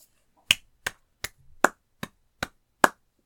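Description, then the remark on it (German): Seven sharp, evenly spaced hand claps at a slow steady pace, like a single person applauding, with silence between each clap and no voices. “tosender Applaus, es hält niemand mehr auf den Sitz.”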